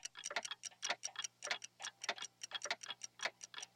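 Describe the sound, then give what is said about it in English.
A dense chorus of many clocks ticking at once on a film set on Stage 12 at Universal for Back to the Future, their sharp clicks overlapping in a busy, slightly uneven rhythm, steady with no voices. “A major pain in the ass to get this shot because of all these clocks and the intricate camera move.”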